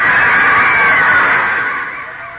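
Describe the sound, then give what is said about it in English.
A large crowd roars in a loud, continuous wall of cheering and screaming that holds steady and then eases off slightly toward the end, with no distinct voices standing out. “There was a roar from the crowd as I put on my helmet, whipped off my blanket, and ran out on the field.”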